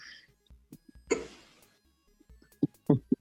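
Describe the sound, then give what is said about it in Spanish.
A handful of short, abrupt hiccups sound at irregular intervals, with a brief breathy burst early on and a quick cluster of sharper ones near the end. “No, en este momento se escucha por mi hipo tiene razón.”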